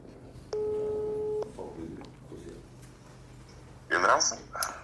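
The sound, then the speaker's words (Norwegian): A steady electronic telephone tone sounds once for about a second, clear, as a phone call is placed, followed by low background noise and a short, louder burst of sound near the end. “Nå må man jo snart ringe”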